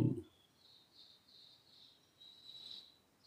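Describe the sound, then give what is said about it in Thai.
Faint, high chirps from small birds repeat in short bursts through a quiet outdoor background, soft, after a brief low thump at the start. “อย่างขณะที่เรารู้ลม ออก รู้ลมเข้าก็มีเสียงร้องของนกเล็กนกน้อย”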